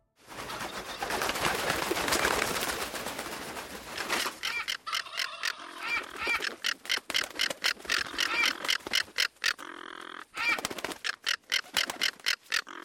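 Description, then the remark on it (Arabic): A flock of vultures screeches loudly after landing on a corpse, beginning with a dense, overlapping flurry of cries that breaks into a rapid series of sharp, repeated squawks. “هبطت الطيور لتقف على الجثة وراحت تصيح لا شك أنها كانت نزورا تشعر باقتراب موت أحدهم”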